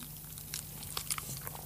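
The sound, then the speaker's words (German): Faint, scattered clicks and light metallic rattles from a dog leash, a few irregular taps over a low steady hum, with no one talking. “Hundeleine, da schneiden wir raus.”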